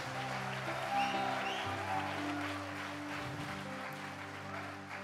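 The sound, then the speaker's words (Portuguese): A church audience claps steadily for about five seconds at the preacher's urging, applauding the sermon, a dense, even wash of applause with no one speaking, while low sustained keyboard notes hum underneath. “está aplaudindo a palavra.”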